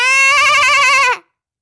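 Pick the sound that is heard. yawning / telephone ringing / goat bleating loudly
goat bleating loudly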